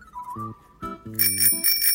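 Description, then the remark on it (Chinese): A bicycle bell rings several times in quick succession in a children's story as the character Hulu rides a bicycle fast to Little Mole's house; bright and metallic with a shimmering high pitch, following a few low, hummed tones; the rings are fairly loud and no one speaks. “呼噜骑着脚踏车往小鼹鼠家出发了。”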